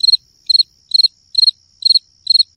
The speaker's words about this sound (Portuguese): Em seguida, inseri esse som de grilo aqui.